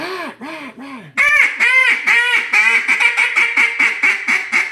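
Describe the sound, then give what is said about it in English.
A duck call blown to mimic a young duck: a few spaced, nasal quacks, then a loud, steady run of quick, bright quacks without pause. No one speaks. “Stand on it with just a, a young duck.”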